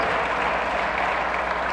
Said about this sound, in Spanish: Dale fuerte aplauso al Señor, hermano. Bendito sea Él. Gloria a Dios.